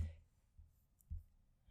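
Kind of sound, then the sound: household object, typing on a keyboard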